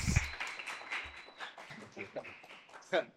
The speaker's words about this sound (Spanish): Y bueno, vamos a compartir con el gran César López. Fuerte el aplauso a César López.